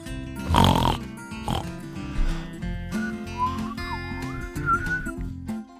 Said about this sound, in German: ja, mein Schwein pfeift.